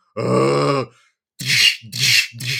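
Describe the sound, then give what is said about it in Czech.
A person imitates the noises of undead zombies heard behind a barricaded door: one long, droning groan followed by three rasping, breathy grunts in quick succession, fairly loud, with no other sounds. “Začneš zvedne se ti šok, začneš utíkat zpátky, zavřeš za sebou dveře, zabedníš ty dveře a slyšíš jenom ty nemrtví dělat.”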